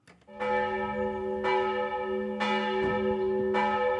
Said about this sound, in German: Die Glocken der denkmalgeschützten evangelischen Kirche von Brandoberndorf, einem Ortsteil der hessischen Gemeinde Waldsolms, läuten zum Gottesdienst.